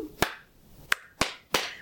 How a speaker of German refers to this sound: Lach-Yoga besteht aus vier verschiedenen Schritten. Das erste im Lach-Yoga ist, mit den Händen, mit den Handflächen zu klatschen